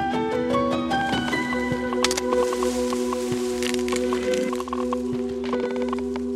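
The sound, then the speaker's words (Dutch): Wet squelching and sharp cracking as orange cocoons split open, continuous, over a steady droning hum with scattered brittle snaps and crackles throughout. “Kijk nou, de kokons gaan open.”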